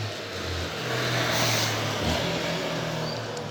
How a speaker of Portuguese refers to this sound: Deixa a moto passar aqui.